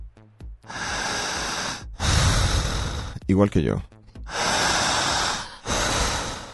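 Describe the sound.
Four loud, forceful breaths drawn sharply in through the nose, each a long rough rush of air, come in quick succession, with a brief spoken phrase between the second and third.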